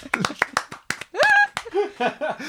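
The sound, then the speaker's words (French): A brief, sparse round of applause for a medievalist joke that earned 10 points: about half a dozen sharp, uneven claps, followed by laughter and voiced, sing-song vocal sounds. “Un petit applaudissement plaît, vous plaît.”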